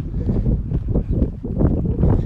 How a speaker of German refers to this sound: Hört wahrscheinlich gerade abnormal krass den Wind.